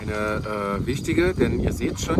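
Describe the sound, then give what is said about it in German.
Steady wind buffets the microphone with a low, rumbling roar that runs under a man talking outdoors in Niedergörsdorf, eastern Germany, throughout. “Und Wind.”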